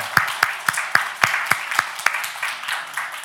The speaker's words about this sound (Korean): 우리 교육부 친구들 손 한번 들어주시겠어요? 우리 좀 박수로 환영할까요?